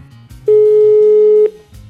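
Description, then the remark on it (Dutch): A single outgoing-call ringing tone sounds once as a call is placed to a bicycle shop in The Hague, a steady, loud, mid-pitched electronic beep lasting about a second, with faint low background hum before and after. “Ik bel er een die veel 1 en 2 sterren heeft.”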